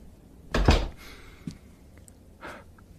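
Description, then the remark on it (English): A door is opened: a sharp latch clatter, a brief creaky swing, and a soft thump, followed a second later by a lighter rustling knock, with no talking. “opens a different door.”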